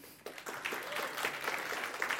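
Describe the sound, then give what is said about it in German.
A church audience breaks into applause for a newly introduced intern, a dense crackle of many hands clapping that starts abruptly and holds steady at a moderate level for about two seconds, with no talking over it. “wir können ihm einmal einen großen Applaus geben.”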